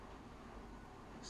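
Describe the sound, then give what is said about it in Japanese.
An air conditioner in a small recording studio, left running because it cannot be switched off, hums and hisses steadily in the background, a faint, even wash of noise with a brief higher-pitched hiss near the end. “これエアコンの音なんですけど今日のスタジオはちょっと狭くってエアコン切れなくて。”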